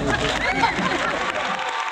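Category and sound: crowd, audience applause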